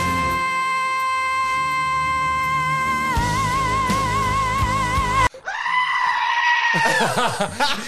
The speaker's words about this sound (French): Le dernier, c'était une chèvre.